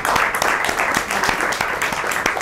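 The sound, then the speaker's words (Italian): Applause from a single person: a brisk, steady run of sharp hand claps fills the whole clip at an even loudness, with no voices over it. “E ti faccio un applauso io, anche se non lo fanno gli altri.”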